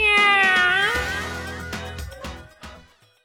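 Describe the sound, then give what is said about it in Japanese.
A single loud, drawn-out meow with a falling pitch, close up, followed by a lower sustained rumbling tone and a few soft knocks that fade out. “ハライチのにゃ猫になっちゃったー”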